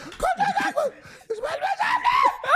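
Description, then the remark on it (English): A person screams loudly, a high, wavering cry that breaks off briefly midway before surging again, with laugh-like bursts mixed into the outburst. “I knew you were gonna scream.”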